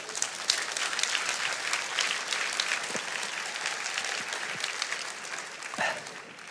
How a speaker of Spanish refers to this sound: Den el aplauso al Señor.